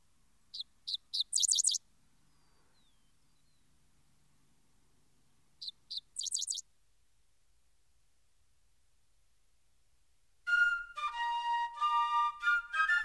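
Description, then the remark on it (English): A bird perched on a roadside fence or tree, its tail spread, gives two quick bursts of high, scratchy notes separated by silence, then launches into a longer, dense, grating song that fills the final few seconds, clear with no voices. “He perches upon the fences and upon the trees by the roadside, and spreading his tail, and gives forth his harsh strain.”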